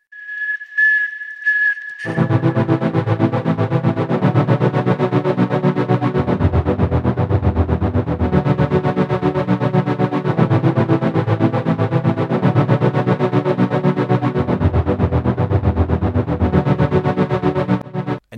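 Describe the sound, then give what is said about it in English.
An eerie, experimental film score: a thin whistling tone sounds alone, then dense droning, distorted layers swell in and repeat in long cycles, loud and unsettling, with no voices. “So let's listen to a bit of the score where the clip would normally go.”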